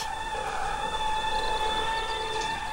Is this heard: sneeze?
no